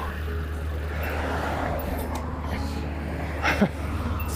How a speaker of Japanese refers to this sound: いやとりあえずですね、はあ、ちょっと車通りは多いんですけれども、あの、